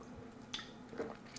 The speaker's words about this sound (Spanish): perdón que se me seca la boca y tengo que tomar agua.